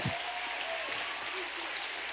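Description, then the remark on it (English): A crowd claps their hands in praise to the Lord, a dense, steady wash of applause that fills the whole clip, with faint voices calling out underneath. “Give the Lord a hand clap of praise that I'm a king.”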